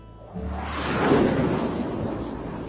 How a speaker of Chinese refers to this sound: 咻！哎，对了吗？那是我好久不见的朋友，直升机小米，他正忙着救人呢。